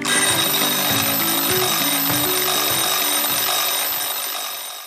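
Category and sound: household object, alarm clock ringing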